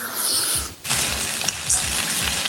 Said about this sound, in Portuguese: Ó, eu joguei esse macarrão aqui.